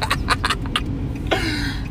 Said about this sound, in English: "Fuck y'all beeping at." It's New York traffic.